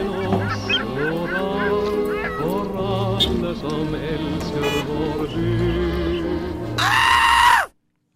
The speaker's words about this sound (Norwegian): Vi hører jo, vi hører jo på slutten av ringeren der 'Skrik', eh, fra, kjent fra Munchs eh, maleri.